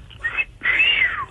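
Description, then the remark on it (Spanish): A person mimics a female bird's call answering the male with their voice: a short whistly chirp, a brief pause, then a longer warbling call that slides downward at the end. Fairly loud, with no talking. “Y entonces la pájara le decía.”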